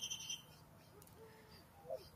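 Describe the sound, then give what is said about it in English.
Faint, high-pitched chirps from young blackbirds calling outdoors at a distance, a short burst at the start and another brief call near the end over quiet background noise. “You hear those blackbirds over there? That's the baby ass blackbirds”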